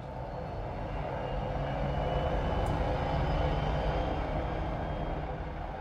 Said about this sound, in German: Täglich sind die Wissenschaftler mit einem Helikopter auf der Suche nach Narwalen übers Eis geflogen, immer entlang von Spalten im Packeis.